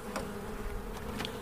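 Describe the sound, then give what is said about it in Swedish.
A steady, dense hum of many honeybees buzzing together in a queenless colony, a split made at midsummer the year before, as the first cover boards of the hive are opened, with faint brief clicks and flutters over the drone and no voices. “Även ljudet är annorlunda.”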